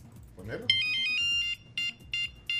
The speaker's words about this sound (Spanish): No tuve ese ritmo. era el del Nokia. el del Nokia, ¿verdad? Sí, ajá, era el del Nokia. Groovy Blue.